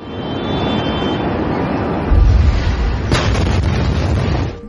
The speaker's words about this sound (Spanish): imágenes de guerra o de explosiones que no eran de Ucrania, sino que eran de la guerra de Gaza o de una explosión en el puerto de Beirut, el Líbano.